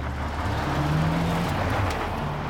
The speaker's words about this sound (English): Bright lights. Is that? Car. There's a car in the tunnel! Look out!